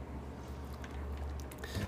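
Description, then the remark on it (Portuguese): Someone drinks water from a 1.5-litre bottle printed with motivational messages, with soft wet gulping and swallowing sounds and a brief slosh near the end, fairly quiet over a low steady hum. “Vou tomar uma água aqui. Que agora eu tenho uma garrafa.”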